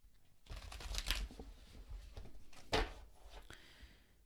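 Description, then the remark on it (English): A deck of tarot cards is shuffled, with a steady run of papery riffles and soft slaps, one sharper snap midway, and no voices. “Always shuffle my deck first of all to put my energy on the cards.”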